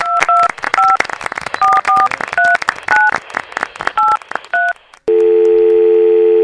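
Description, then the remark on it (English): A rapid series of about a dozen phone keypad tones is dialed over sharp, crackly clicks, then a loud steady line tone begins, like the call starting to ring. “Let's clap a little bit and uh, hear uh, the phone ring and uh, then pick up.”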